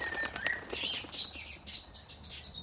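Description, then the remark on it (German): Pigeons flapping their wings as they fly into a garden, in a series of soft, fluttering bursts, with thin high bird chirps and tweets scattered over the top; no one speaks. “Und natürlich kommen auch ein paar Tauben.”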